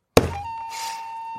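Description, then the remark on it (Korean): A single hard slap on a table, meant to mimic a gourd bursting open, lands as a heavy low thunk with a sharp attack, then a faint tonal hum lingers after it. “터지는 소리예요, 그게 박 터지는 소리.”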